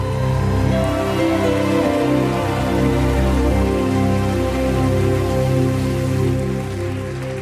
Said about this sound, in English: Clap your hands one more time to the Lord. Come on, give God a mighty hand clap in Oregon.